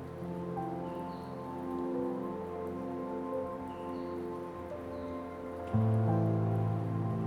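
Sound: falling rain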